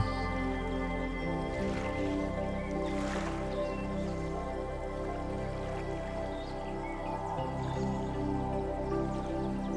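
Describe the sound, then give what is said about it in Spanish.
Gentle water sounds from a lake, soft drips and liquid splashes scattered over a steady, sustained tonal hum. The level stays moderate and even throughout, with no voices. “Hay un lago donde los colores del cielo se reflejan y el sonido del agua se complementa con el sonido de las hojas del gran árbol.”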